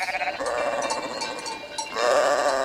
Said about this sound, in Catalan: Aquí el tenim, aquestes ovelles.